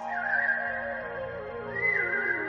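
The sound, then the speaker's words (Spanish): A father whistles alone among a crowd after many other whistlers fall silent, holding a long steady note that bends upward in a second phrase. The whistle sounds clear, with no talking. “Y de repente toda la orquesta se silenció y un silbido resaltó en el silencio.”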